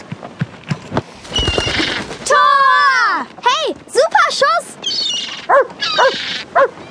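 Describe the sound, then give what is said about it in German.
A dog, Bootsmann, the dog of Papa Pontus and Mama Mia, lets out a long, drawn-out whine, then barks in several short, sharp bursts, fairly loud, with soft clattering sounds earlier on. “Das war Bootsmann, der Hund von Papa Pontus und Mama Mia.”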